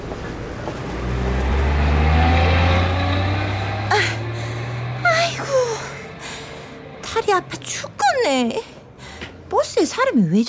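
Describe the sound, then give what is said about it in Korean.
A heavy engine rumbles and revs upward as a bus pulls away on the street, its drone easing off as people begin talking over the traffic noise. “방금 버스 내렸어라.”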